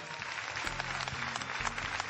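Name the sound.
applause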